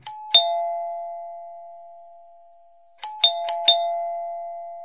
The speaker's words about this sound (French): La sonnette de porte ce ding-dong, si caractéristique et pourtant si largement partagé dans le monde. Tout le monde dit ding-dong.